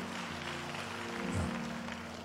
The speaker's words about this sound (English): Clap those hands as you take your seat.